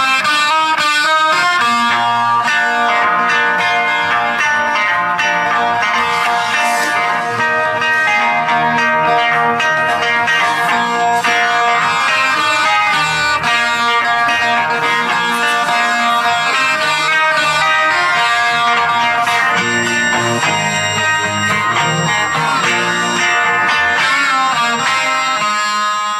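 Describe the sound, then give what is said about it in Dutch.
Two guitarists play wildly on a recording: loud, distorted electric guitars wail and churn over a dense, steady band backing, with sustained bending notes and driving chords filling the whole stretch without any talking. “Want eh, ze gaan dan op die gitaren geweldig tekeer. Laten we even een stukje horen eh, hoe, hoe dat klinkt.”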